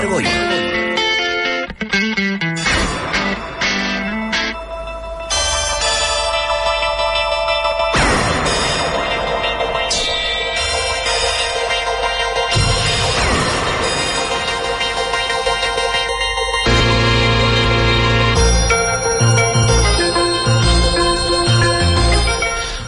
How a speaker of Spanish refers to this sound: siempre es un placer, un honor el escuchar esta sintonía, esta sintonía que nos pone ya de, entre entreaviso de que ya estamos metidos de lleno en esto del mundo del misterio, en esto del mundo insólito, paranormal, en esto del mundo del misterio.